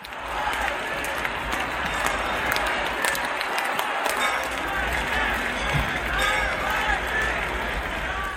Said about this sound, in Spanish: Y así, entre aplausos, entre ovaciones, coreando el nombre de Navalny, miles de personas recibían esta mañana el féretro a su llegada a la Iglesia Ortodoxa de Moscú, donde se ha oficiado un breve funeral